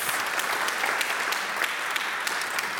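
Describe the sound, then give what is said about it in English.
An audience claps and snaps fingers steadily and fairly loudly for a few seconds, a dense, continuous patter punctuated by sharper individual cracks, with no talking over it. “We got claps and snaps happening for that.”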